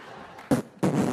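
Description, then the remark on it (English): A short fart sound: a quick sputtering burst followed by a longer, fuller blast, fairly loud, with no talking over it. “She farts, you act like she ain't do it because you trying to be cute”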